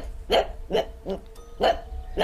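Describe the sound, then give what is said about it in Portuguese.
A small pug dog named Proton barks four times at the door of a dark home in the middle of the night, in quick, slightly uneven succession, each yap short and sharp, with a faint low hum underneath and no voices. “Uma noite, no meio da madrugada, eu estava dormindo e o Proton começou a latir do nada.”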